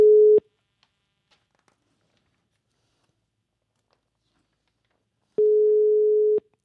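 A phone line rings while a call is placed: a steady, clear ringback tone sounds briefly, falls silent for several seconds, then returns for about a second, with no voices.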